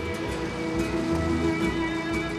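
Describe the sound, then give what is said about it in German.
Steady rain patters down in a dense, even hiss during a river ship voyage on the Amazon in Peru, with a constant low mechanical hum running beneath it throughout. No one speaks. “Nicht zuletzt dank viel Regen von oben haben Schiff und Passagiere auf dieser Reise immer genug Wasser unterm Kiel.”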